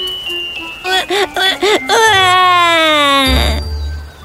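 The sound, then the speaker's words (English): A baby cries as a cat turns to go away: five short, rhythmic sobs in a row, then one long, loud wail that slowly falls in pitch before breaking off. No one speaks over it. “But as she saw it go, baby Leah suddenly started to cry.”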